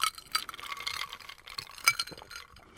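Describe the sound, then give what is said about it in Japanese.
Glasses clink together in a toast with Hakutake Shiro rice shochu from Takahashi Shuzo of Kumamoto: a few light knocks and rattles followed by one bright, ringing clink, with no one speaking. “じゃああの、まあ、早速、はい、私たちの出身地、はい、熊本の高橋酒造の米焼酎白竹白で乾杯させていただいていいですか、はい、では乾杯乾杯でございます”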